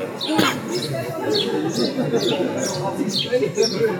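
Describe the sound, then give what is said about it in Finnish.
A small bird calls repeatedly with short, high, downward-sweeping chirps at a steady pace, heard over a constant murmur of voices and background bustle. “Onko se toi pikkulintu tosta? Se on hukannut jonkun.”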